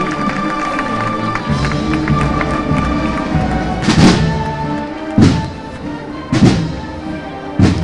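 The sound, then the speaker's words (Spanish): The people of Jaén applauding during a Holy Monday procession, a steady, dense wash of clapping and murmur, with a few heavy, deep thuds breaking through at regular intervals in the second half. “Cantando el aplauso del pueblo de Jaén.”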